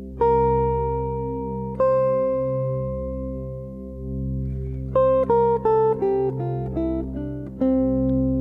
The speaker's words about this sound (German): Erstmal die Tonleiter C. Die ganze C-Dur-Tonleiter, nämlich